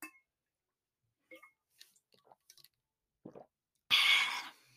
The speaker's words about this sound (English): Before I go, we always do this grab some water and drink with me.